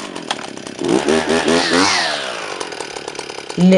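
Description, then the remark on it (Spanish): A loud power tool runs, its motor revving up to a high whine and then winding back down in a rough, buzzing drone. “los ruidos fuertes, por ejemplo, una máquina que está cortando el pasto, un taladro, un martillo.”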